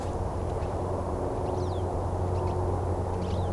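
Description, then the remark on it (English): Faint calls of two siskins circling in flight, a few short high chirps spaced out over a few seconds, above a steady, heavy rumble of background noise. “siskins again.”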